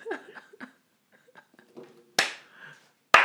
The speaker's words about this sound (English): That's the slow clap.